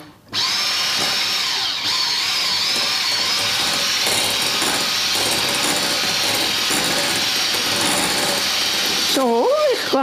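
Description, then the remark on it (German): A steady, loud motorized whir runs almost the whole time, with a high buzzing whine and slight pitch wobbles, as an electric kitchen mixer blends ingredients together. A voice briefly rises near the end. “Das tun wir jetzt zusammen mixen?”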